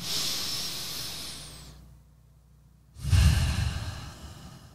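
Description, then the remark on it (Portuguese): Slow, deep breaths as a person takes control of their breathing: a long airy breath that fades out, a couple of seconds of near silence, then a heavier, fuller breath. No talking. “assumiu o controle da respiração.”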